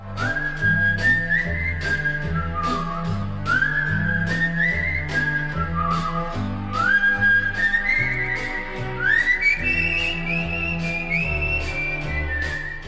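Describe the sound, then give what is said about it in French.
A clear whistled pop melody built on a six-note progression glides through short rising and falling phrases, carried over a steady backing track with bass and a regular beat, fairly loud throughout. “C'est la musique, la mélodie qui fait tout. Il y a une vraie douceur triste dans cette progression sur six notes.”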